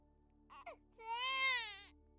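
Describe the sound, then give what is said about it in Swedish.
A baby howls as it is tossed violently back and forth: a short choked whimper, then one long, loud wailing cry that rises and wavers before trailing off, with no talking. “den lilla tjöt så att Alice nästan inte hörde texten”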